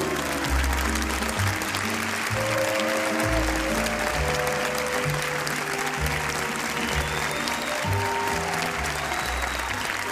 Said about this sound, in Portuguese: Espontâneo, não estavam à espera de bater palmas.